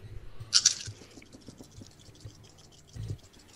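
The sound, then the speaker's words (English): A short, bright clatter of dice rattling and tumbling across a surface, followed a couple of seconds later by a soft thud; no one speaks. “Come on, dice. I got a success.”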